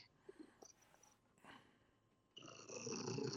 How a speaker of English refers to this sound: I'm having to adjust the cat on my chest to. Yeah, I, I hear him.